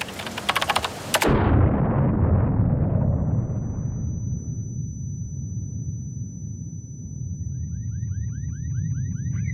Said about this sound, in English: Three twenty-five p.m. A car bomb explodes. Eight people in or near the high-rise building are killed.